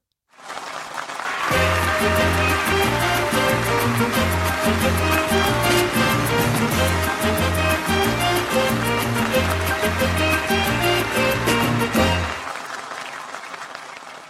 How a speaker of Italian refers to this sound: Però non serve dire così al Calonghi Severi, manda un'altra sigletta, cioè c'è modo e modo di rivolgersi maestro.